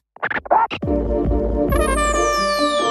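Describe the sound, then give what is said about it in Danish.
A punchy intro beat opens with quick DJ-style scratches, then settles into a heavy sustained bass groove with layered synth tones and a sweeping high whoosh, loud with no voices. “Kan jeg få mit beat?”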